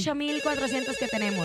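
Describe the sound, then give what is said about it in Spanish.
A phone rings with an electronic melodic ringtone, steady and fairly loud, while a man talks over it for the whole moment. “Vámonos, tenemos una llamada.”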